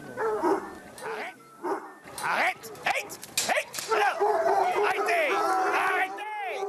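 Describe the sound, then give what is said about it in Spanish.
A pack of hounds barks and bays excitedly all at once, an overlapping, continuous chorus of yelps and howls, with a voice briefly audible among them, as the dogs wait impatiently for their feeding of poultry meat and vegetable croquettes. “La lucha está apretada. Cada perro quiere su osamenta, 400 gramos cada uno.”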